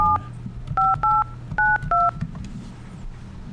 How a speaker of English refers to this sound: Okay. Well, that's good if you can hear the DTMFs.